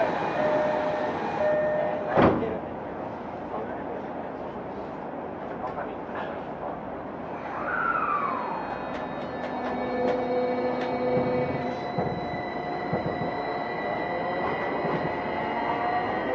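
A Tokyo Metro 05 series (wide-door car) subway train on the Nakano–Nishi-Funabashi line runs with a steady rumbling drone, a sharp knock early on, and a rising-then-falling whine of the motors as it pulls away from Kudanshita station toward Takebashi, with faint tonal hums throughout.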